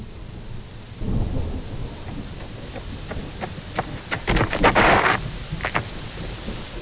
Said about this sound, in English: You rush to the porch, the rain pouring off you.